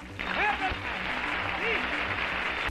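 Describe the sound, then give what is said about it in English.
An audience bursts into steady applause on cue for a few seconds, a dense wash of clapping that starts suddenly and stops abruptly, with a voice speaking over it. “Put the clap right there, right there where you clap.”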